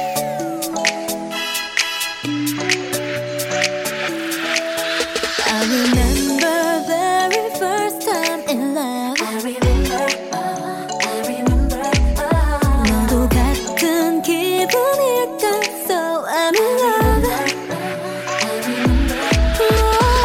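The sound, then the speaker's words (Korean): A K-pop song plays loudly and continuously, with a driving beat, layered synths and a sung melody, filling the whole stretch with no talking over it. “노래를 두 곡을 듣고 왔습니다.”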